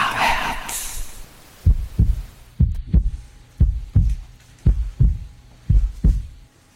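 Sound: steady heartbeat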